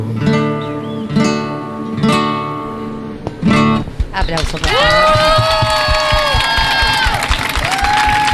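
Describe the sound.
A few strummed chords with a singing voice give way to a loud burst of audience applause and cheering, dense clapping mixed with sustained whoops and shouts that carry on to the end.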